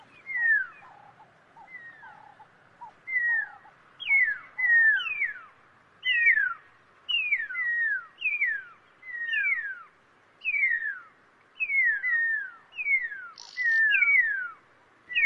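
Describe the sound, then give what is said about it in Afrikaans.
A pearl-spotted owlet gives a long series of loud, clear whistles, each note sliding down in pitch, repeated rhythmically and building in intensity, with no voices present. “Nou soos ek gesê het, hulle het 'n baie unieke roep, né? Want hulle roep is eintlik meer soos 'n fluitgeluid wat hy maak.”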